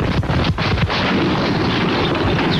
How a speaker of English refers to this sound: We just heard explosion took away what appears to be nearly one third of the building. The entire front is gone. A terrible explosion, it's just like an atomic bomb went off.